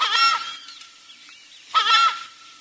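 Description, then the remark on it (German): Two loud, harsh honking calls from a southern screamer, a large bird, each about half a second long with a rough, wavering tone, separated by a short pause with faint background sound; no voices. “Im Englischen wird der Vogel Southern Screamer genannt, was eigentlich sehr treffend ist, also der südliche Schreier der südliche Rufer.”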